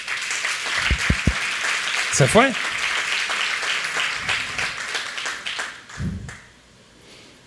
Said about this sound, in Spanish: Todos los maestros de niños, adolescentes y todos los profesores, los, líderes y colíderes de Casa de Luz, las ayudas, todos los que están sirviendo en la Casa de Luz. Otro aplauso a ellos.